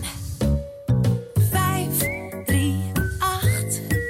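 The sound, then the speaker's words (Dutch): A short, bright radio jingle where a whistled melody rides over punchy instrumental chords, arriving in rhythmic bursts, loud, with no talking. “Dit is het fluitje.”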